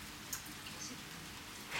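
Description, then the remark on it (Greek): Steady rain falls throughout, a soft even hiss with a few sharper drops ticking through now and then. It stays fairly quiet and constant, with no voices. “Ένα βροχερό πρωινό κατέφθασε μια κοπέλα.”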